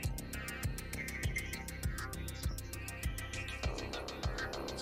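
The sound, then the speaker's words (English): Deep synth bass notes rumble and thump in a steady pulse, each hit sliding downward in pitch, with rapid crisp ticking percussion layered on top throughout. “Now the bass starts rumbling.”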